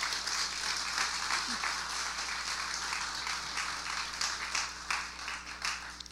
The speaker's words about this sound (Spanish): Y quiero tomar este tiempo para pausar y que usted, eh, eh, vamos a darle un fuerte aplauso a los voluntarios de nuestra iglesia.